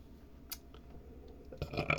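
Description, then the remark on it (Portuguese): A single low, throaty burp swells up after a brief sharp click, rumbling with a rough, raspy texture before cutting off. “Não consigo parar de arrotar, caralho.”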